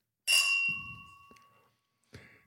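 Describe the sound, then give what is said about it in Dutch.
Glasses clink together in a New Year's toast, a bright ringing chime that lingers and slowly fades, followed by a second, softer clink after a short pause. “alvast proost op het nieuwjaar.”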